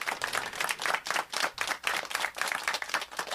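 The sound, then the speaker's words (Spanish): A crowd breaks into steady applause, many hands clapping together in a dense, continuous patter that swells and dips slightly throughout, with no voices standing out. “un DirecTV que, por cierto, abandonó Venezuela, un aplauso”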